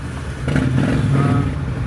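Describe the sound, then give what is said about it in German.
Several Harley-Davidson motorcycles and a Simson ride past outdoors in eastern Germany, engines rumbling steadily with a low, throaty drone that swells after a moment and holds, without any talking over them. “war hier draußen, fahren gerade ein paar Harleys vorbei. Und eine Simson.”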